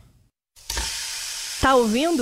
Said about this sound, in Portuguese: Esse é o barulho da proteína sendo selada.